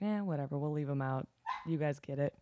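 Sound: dog barking and whining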